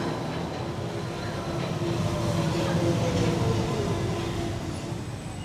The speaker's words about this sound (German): Gleis 1 Einfahrt Purpose Express nach Köln-Porz. Vorsicht bitte bei der Einfahrt.